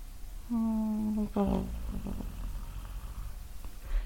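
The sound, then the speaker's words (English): A person imitates a cat purring with a steady, buzzing hum lasting about a second, then a short falling vocal rumble, followed by quieter low background noise. “It's like a very oh. tiny plane landing.”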